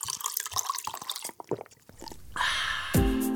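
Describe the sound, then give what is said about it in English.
Coffee pours into a cup, starting with scattered drips and splashes before settling into a steady stream whose tone rises as the cup fills. “Pour a cup for your host, Nick Nimmin.”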